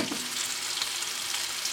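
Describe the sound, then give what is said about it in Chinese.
Meat browning as it fries in a pan, a steady dense sizzle with crackling pops spread across the highs, holding at an even level throughout with no voices. “好，那我这边上色差不多了，我要关火。”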